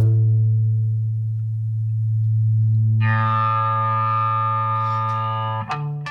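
A sustained, humming low guitar feedback note drones steadily, then swells into a brighter, buzzing distorted tone about halfway through before cutting off with a short click near the end.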